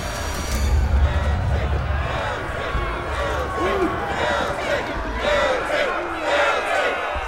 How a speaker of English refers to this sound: Before the sheriff can respond, there is a stirring outside the courthouse, up the main street. The townsfolk of around 60 or so men and women pour out onto the main street, chanting and shouting.